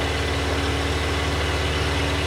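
Several car engines idle steadily in a traffic jam on the Route Nationale 7 at Lapalisse, a constant low rumble with a faint mechanical hum and no voices, filling the whole short stretch at a moderate level.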